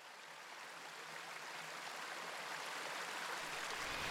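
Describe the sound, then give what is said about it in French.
Steady flowing river water, a continuous soft rushing wash with no breaks, quiet and slightly swelling toward the end, with no voices present. “Elles marchèrent le long de la rivière, au son des grenouilles qui chantaient, et admirèrent les libellules au-dessus de l'eau et les grandes fleurs de nénuphar.”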